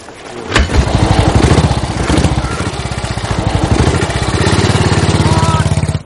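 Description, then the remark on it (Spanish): A motorcycle with a sidecar starts with a sharp click as two people get on, then settles into a loud, steady rhythmic putter, revving slightly and idling throughout. “Ambos se montan en la moto con Sidecar.”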